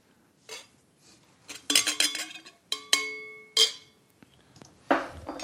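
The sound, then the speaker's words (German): A tasting glass clinks and scrapes as it is picked up and set down during a tasting, several bright ringing knocks with a sustained glassy tone, separated by short quiet gaps, with no talking. “Warte mal, ich nehme mal das andere Glas hier.”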